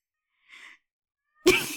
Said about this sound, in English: meowing so loud. I can hear him.